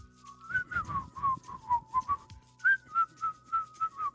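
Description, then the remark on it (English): A person whistles a short melodic tune, clear notes gliding and stepping in a steady rhythm, with a brief pause midway before the phrase continues. “Not a lot of songs with the whistle in them, like the actual whistle.”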